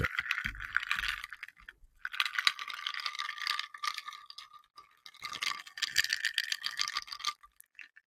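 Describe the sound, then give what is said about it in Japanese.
Metallic rattling and clattering from a cheap spring-loaded microphone arm as it is set down, in three bursts of busy, jangly, bright noise with short pauses between them, and no voices. “ちょっと置くとこのガガーンって響いちゃうんですよね。バネがついてるからね。安物のマイクアームはダメだというね、話。”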